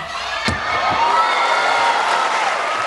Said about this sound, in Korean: 새 기술 탄생의 순간 숨죽여 지켜보던 객석에서 환호성이 터집니다.